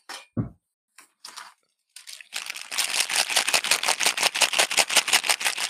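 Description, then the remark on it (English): A nearly empty medication container, almost empty at the end of the week, is shaken in a steady, fast rattling rhythm, a few loose pills clattering after some brief handling noises at the start. “No, you got you got to shake it so they know. It's almost empty because it's the end of the week, but ASMR.”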